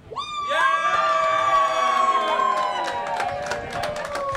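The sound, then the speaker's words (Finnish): An audience shouts and cheers loudly together, a sustained roar of many voices with high-pitched yells rising above it, fading slightly toward the end. “Ja tota, jos te haluatte äänenne meidän seuraavaa podcast jaksoa niin voitte nyt huutaa.”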